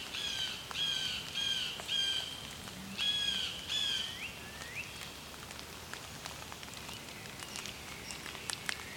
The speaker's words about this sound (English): Blue jay.